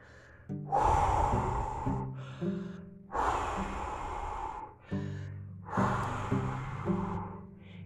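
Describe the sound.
A voice imitates a wolf blowing hard at a little pig's house: three long, loud, breathy huffs, each a forceful rush of air with a faint voiced groan, separated by brief pauses. No words are spoken.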